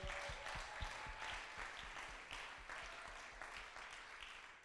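Loud, sustained applause from an audience at a sermon event in Frankfurt, a dense wash of many hands clapping steadily for several seconds, with no voices standing out.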